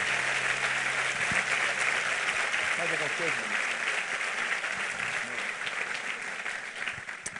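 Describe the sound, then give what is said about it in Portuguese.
An audience applauds steadily in the name of Jesus, a dense wash of clapping that holds loud for several seconds and eases slightly toward the end, with voices calling out underneath. “Se você crê, diga eu recebo e aplauda ele no nome de Jesus.”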